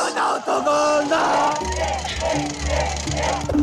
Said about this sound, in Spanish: ¡Estalla la tribuna!